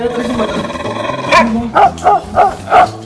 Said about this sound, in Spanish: Desde el cuate que traía la torta del jueves en la mochila, Ay, Ya hasta ladraba la mochila.